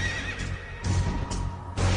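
A horse neighs loudly, its whinny rising and falling in a few strained bursts over a low, rumbling background, with no one speaking.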